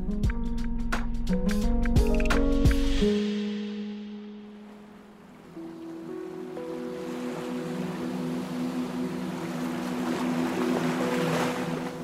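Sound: boat on the water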